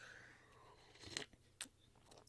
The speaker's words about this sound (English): Another sip of coffee. Hold on.